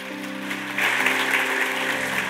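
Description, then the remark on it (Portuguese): Applause from a crowd applauding the Lord Jesus, a dense wash of clapping that swells after a moment and holds steady, with a sustained tonal hum underneath, no one speaking. “Aplauda o Senhor Jesus por isso.”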